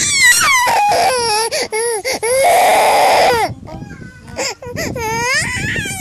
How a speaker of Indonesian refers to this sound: Ayo nangis. Nangis. Ayo nangis sampai bapaknya pulang. Lebih menjiwai lagi. Ayo nangis.